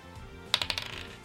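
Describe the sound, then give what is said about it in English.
Dice are rolled for initiative in a game, clattering onto a hard surface in a quick burst of sharp clicks, bouncing several times and tapering off, moderately loud, with no voices. “And now you may roll initiative versus Raichu.”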